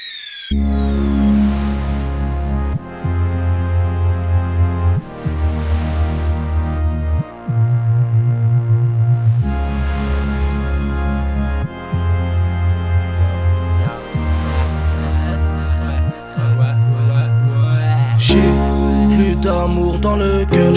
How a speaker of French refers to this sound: donc j'ai choisi ce morceau. Allez, on écoute ça, relax, c'est que du rap.